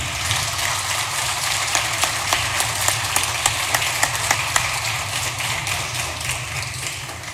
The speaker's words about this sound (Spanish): Quiero en este momento recordar a, la hermana de la vicepresidenta, Marina Moyano, una gran luchadora por los comedores y el vaso de leche, y decir yo pido un aplauso para Marilena.